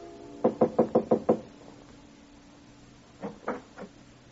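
Knocking on the panel door of a seventh-floor apartment in the Summerfield Apartments on Madison Avenue: a quick run of six firm raps, a pause, then three softer knocks. Clear with no voices.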